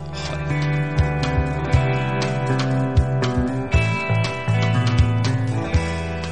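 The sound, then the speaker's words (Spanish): A band plays full, loud music with sustained chords and a steady beat of punchy drum hits roughly every second, with no talking over it. “Que suena así de bien.”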